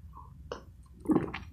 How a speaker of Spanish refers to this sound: Ah, disculpen, pero acabo de dar un sorbo a mi café para lubricar el, el sistema para poder hablar un poco más con ustedes.